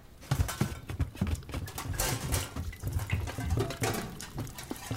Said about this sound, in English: Bring up as many pots and pans as you can carry. The roof is leaking everywhere.